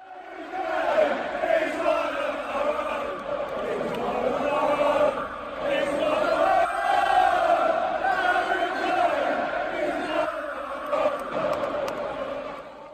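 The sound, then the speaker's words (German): A large crowd of Tottenham football fans sings the chant "He's One of Our Own" together, a loud, sustained wall of voices with a rising and falling melody that carries on steadily for the whole stretch. “Ja, man hört so ein bisschen undeutlich, weil schon das eine oder andere Pint getrunken worden ist, aber He's One of Our Own singen die Tottenham-Fans.”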